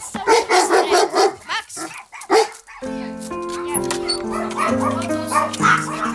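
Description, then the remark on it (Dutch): Dogs, a huge shepherd named Max and two small chihuahuas, bark in a rapid, overlapping flurry for a few seconds at a small wooden house near Antwerp, then fall silent as steady music with sustained tones takes over. “Ze woont samen met de enorme herder Max, twee kleine chihuahuas, een troepje kippen”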